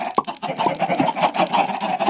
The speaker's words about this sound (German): Chicken.